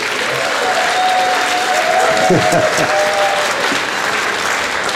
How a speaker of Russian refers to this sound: ваши аплодисменты.